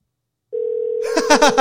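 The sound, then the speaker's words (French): After a moment of silence, a steady telephone ringback tone drones on while waiting for someone to pick up; the call goes unanswered and reaches voicemail, and a voice soon begins over it. “Il va pas répondre cette fois-ci.”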